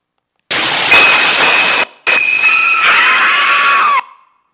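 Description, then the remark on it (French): Harsh, strident music blares in two loud sustained blasts, a noisy wall of sound pierced by shrill, piercing high tones that creates an anxious, grating effect, with a brief gap between. “dans laquelle je n'ai malheureusement pas pu séparer le son enfin, musical des cris, mais vous allez pouvoir mesurer ce que la, force euh, de l'anxiété communiquée par ces les notes stridentes.”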